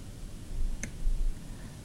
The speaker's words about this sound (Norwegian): Så jeg klikker meg nå på en ny enhet.